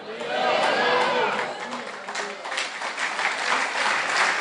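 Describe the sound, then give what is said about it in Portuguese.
A church audience breaks into sustained, dense applause for the Lord, steady and loud throughout, with some cheering voices mixed into the clapping. “Sim, aplaudimos o Senhor.”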